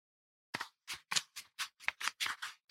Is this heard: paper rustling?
yes